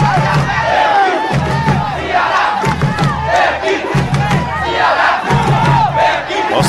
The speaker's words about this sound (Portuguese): Vocês estão vendo aí esses gritos? É porque o Zé Roberto jogou aqui um colete. Agora é o Messias que vai ali para jogar. Vamos ouvir a torcida.